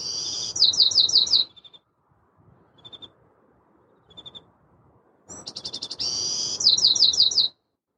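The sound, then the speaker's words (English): A bird sings loud, high-pitched phrases of rapid repeated chirps in two bursts, with a few faint short calls in the quieter gap between them; the first birdsong of the day at dawn. “There it is. The first song of the day.”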